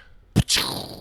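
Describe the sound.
A voice imitates a cannon blast: one sharp, booming burst from the mouth, followed by a breathy, hissing rush that trails off. It's fairly loud, with no words spoken.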